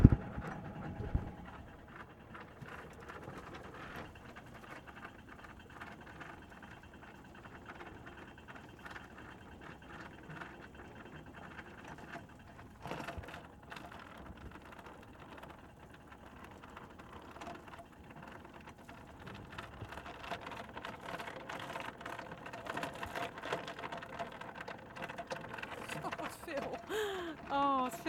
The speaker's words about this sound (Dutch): Hij zet dus achteruit. Ik hoor het ankerketting rollen. En ik zet hem niet heel hard in zijn achteruit hoor.